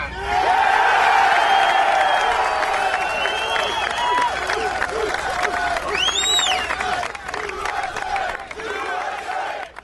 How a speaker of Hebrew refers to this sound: והוא קיבל מחיאות כפיים, ואנשים בכו מדמעות.